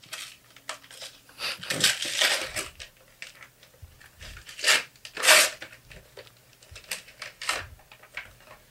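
Gift wrapping paper being torn open, a run of irregular crinkling rips and rustles, with a few louder tearing bursts over several seconds, fairly close by with no talking.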